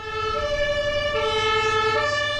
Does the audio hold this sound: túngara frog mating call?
no